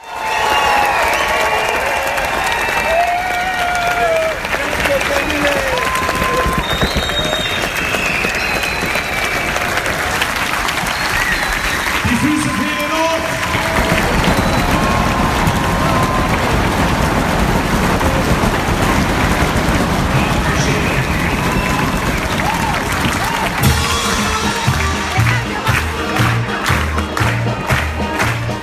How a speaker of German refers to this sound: Und zum Abschluss gibt's noch einen Ausschnitt vom Applaus eines begeisterten Publikums zum großen Finale der Gala-Premiere.